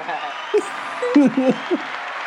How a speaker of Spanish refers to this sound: Vamos a darle un ah, fuerte aplauso al pana porque vamos. a darle un aplauso por favor.